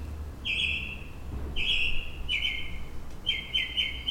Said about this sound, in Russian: маленькая вставочка, я только что записала птичек, которые поют у меня за окном.